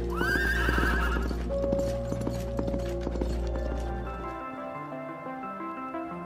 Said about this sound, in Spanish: se dice que nadie pasa por debajo del árbol de la horcada, pues se aparece la imagen fantasmagórica de un caballo que galopa veloz, montado por un jinete y una joven cuyo rostro es una calavera.